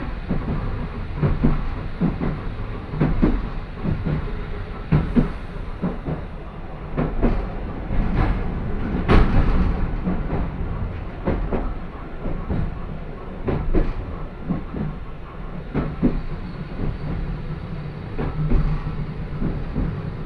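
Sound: tram running on rails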